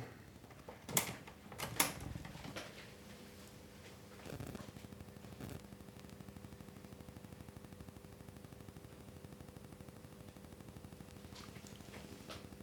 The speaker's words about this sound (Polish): No właśnie, tak, bo to jest prezentacja dyktafonów. Przewijamy na sam początek. Poczekamy, jeszcze kaseta zacznie. Chwilę poczekamy, tam się szum mechanizmu przez moment nagra.